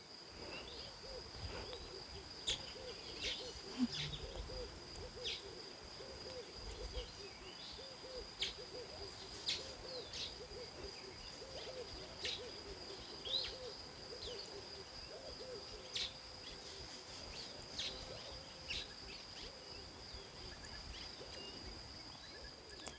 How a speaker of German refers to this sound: Nehme dieses Vögelgezwitscher wahr, diese ganz vielen Tiere, die ich nicht kenne, diese, diese vielen Vogelarten, die ich nicht kenne.